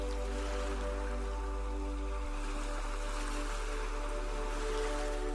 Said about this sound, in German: Du stehst nun knöcheltief im Wasser und beobachtest den Wellengang. Beobachte einmal, wie die Wellen vor dir brechen wie das Wasser bis zu deinen Füßen fließt und wieder zurück ins Meer fließt.